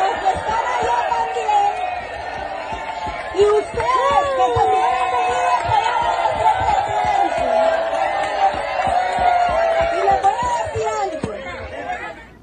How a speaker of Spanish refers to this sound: Y quiero que acá también me den un grito los que apoyan al presidente que están a este lado y que también